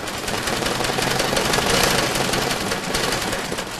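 An embroidery machine stitching away with a fast, steady mechanical rattle, loud and unbroken for the whole stretch, a dense clatter of needle strokes with no voices.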